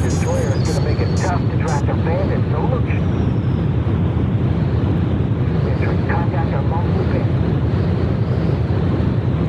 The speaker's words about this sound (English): this is some kind of jet plane thing. It is a jet plane thing. That is correct.